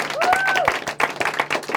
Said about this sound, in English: Give it up. Yeah, you guys can clap. Yeah, you guys can join in on the fun.